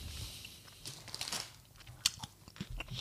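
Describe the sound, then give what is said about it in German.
Crunching and chewing of hard candy, an orange one and a green one in the mouth at once, with irregular crisp crunches and a few sharper bites over soft mouth sounds, no talking. “Achso, sonst hätte ich dir die beiden noch gegeben, damit du gleichzeitig kauen kannst.”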